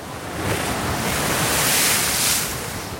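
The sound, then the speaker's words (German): Stormy Atlantic Ocean waves roar continuously with a steady broad wash of surf, swelling slightly and peaking mid-way, while gusty wind rumbles underneath, as house-high waves sweep over a ship's deck. Loud, with no voices. “Tausende von haushohen Wasserbergen tauchen auf und nieder, fegen und waschen das Deck leer.”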